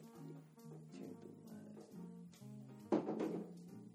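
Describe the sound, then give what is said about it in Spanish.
A cat knocks over a guitar near the end, a sudden clattering thump with a short jangle of strings, heard faintly after several seconds of low, muffled tonal background sound. “Acaba de botar una guitarra.”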